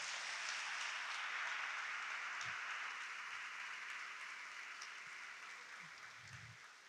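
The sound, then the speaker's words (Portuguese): A church audience applauds Jesus in a sustained, dense wash of clapping that holds steady for several seconds before gradually thinning out toward the end. “E a igreja diz: aplauda Jesus bem forte.”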